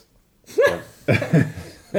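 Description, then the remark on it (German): A person sniffing whisky: three short, loud sniffs with a slightly voiced, snorting edge, the last cut off at the end, following a moment of silence. “Sie schnieft den Whisky.”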